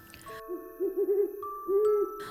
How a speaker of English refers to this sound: Next, Leo encountered a wise old owl named Olivia.